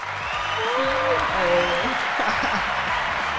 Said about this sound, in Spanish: Este, estamos probando todo esto que están viendo aquí, señores, lo estamos probando. Este creo que es el aplauso.